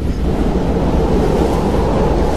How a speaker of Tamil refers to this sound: ரயில் போகிற வேகத்தில் வேகமான காற்று அப்படியே உங்கள் கன்னத்தில் வந்து அரையுது